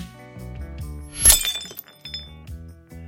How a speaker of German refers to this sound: Das war natürlich für das Splittern der Glasscherben perfekt. Das erste Glas war ein Weinglas. Das zweite war ein dickeres Glas, mit dem wir nochmal etwas Punch in den Sound bringen wollten.